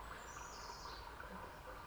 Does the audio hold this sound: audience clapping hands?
no